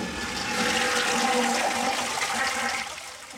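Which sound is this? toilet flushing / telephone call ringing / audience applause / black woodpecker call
toilet flushing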